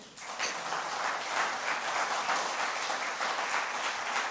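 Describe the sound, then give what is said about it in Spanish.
A crowd breaks into sustained applause for God during a sermon, a dense, steady wash of many hands clapping at an even loudness for several seconds, with no voices standing out. “Dele pues un aplauso a Dios, ¿sí?”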